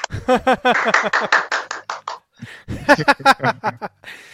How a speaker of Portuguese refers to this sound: Uma salva de palmas.